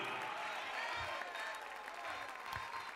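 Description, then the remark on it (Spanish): An audience claps steadily and loudly in applause to the king, a dense wash of many hands sustained throughout with scattered voices mixed in. “Dale más fuerte ese aplauso al rey.”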